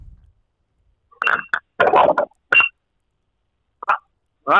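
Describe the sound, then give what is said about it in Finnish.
A short series of electronic telephone tones from a caller coming in on the line, several brief bursts in an uneven rhythm with gaps between them, fairly loud, with no voices present. “Ja hei hetkinen, täällä muuten on linjoilla joku. Otetaanko soittaja?”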